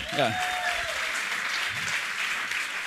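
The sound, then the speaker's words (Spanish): An audience breaks into steady, dense applause for a person called up on stage, a continuous wash of clapping at a fairly loud level with a brief voice or whistle-like tone rising at the start. “Recibimos al rey con un aplauso al rey.”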